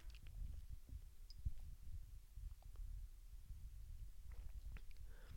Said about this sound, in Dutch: Even een slokje water.